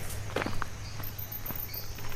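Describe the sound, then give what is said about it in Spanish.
Slow footsteps approaching, a few soft, irregularly spaced steps over a low steady hum, with faint insect-like high chirps in the background and no talking. “De pronto escuchamos un ruido de pasos lentos que se acercaban.”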